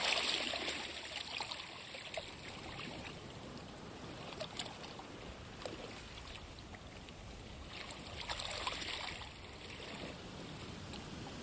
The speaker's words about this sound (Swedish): Vågskvalpet vaggar dig sakta till ro.